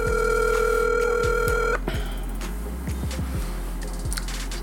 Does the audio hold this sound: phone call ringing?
yes